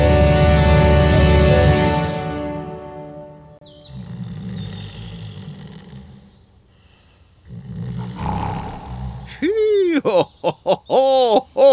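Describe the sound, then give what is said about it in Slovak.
An old woman snoring: a loud, deep rasping snore, then quieter breathy rumbles, ending in a quick series of high, wavering whistles like a cartoonish exhale. “ho, tá babka veru zaspala. Mm. No to musel byť naozaj dobrý obed, keď takto chrápe.”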